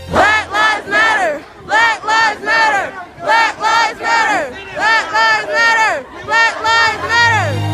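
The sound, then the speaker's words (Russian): A large crowd chants in unison at a protest in the United States, part of the wave of rallies across the states and the Black Lives Matter movement after George Floyd's death in May, loud voiced phrases repeating in a steady rhythm of short grouped bursts with brief pauses between them. “После того, как накануне во время задержания был убит 46-летний рецидивист Джордж Флойд, по всем штатам прокатывается волна антироссийских митингов и начинается движение BLM – Black Lives Matters – «Жизни черных важны».”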